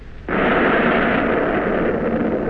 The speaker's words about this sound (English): You press the firing keys that set off the 15 big guns. And as the searchlights on topside flash on for a moment, you see the big enemy cruiser square in the crosshairs of your sight.